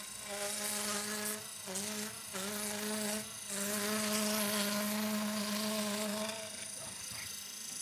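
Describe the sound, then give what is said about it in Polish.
Fabric being cut with an electric cutter at a local production site in Końskie, Poland: a steady, high-pitched motor buzz with a raspy edge, briefly dipping twice near the start before running on evenly, with no talking. “Będzie teraz Krojenie materiału.”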